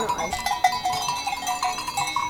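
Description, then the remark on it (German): A recording of cowbells rung in waves, made as a guide for percussionists: they clank and jangle in overlapping, irregular waves, bright metallic tones swelling and ebbing continuously at a moderate level with no voices present. “Ich habe sogar Aufnahmen gemacht, damit die Schlagzeuger, die da mit den Kuhglocken läuten müssen, wissen, wie das funktioniert.”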